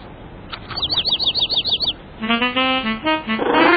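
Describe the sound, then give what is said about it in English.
A bird chirps in a quick series of bright, repeated high notes, followed by a lower, warbling run of calls, with no one talking. “Caillou was startled and excited to hear the bird chirp.”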